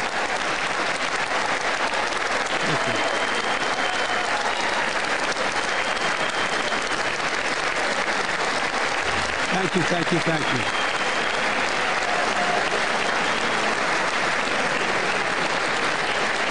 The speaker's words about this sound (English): And Republicans, all of them seem to be standing uh, and applauding uh, as they wait for the president to speak.